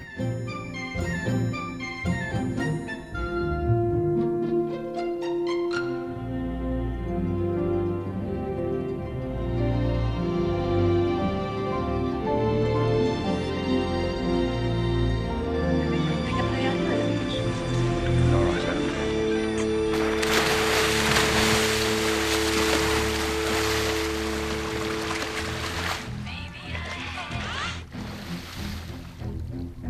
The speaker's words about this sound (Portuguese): Esses cellos, executando as duas notas base do tema principal, avisam que o monstro está por perto da praia onde as crianças se divertem.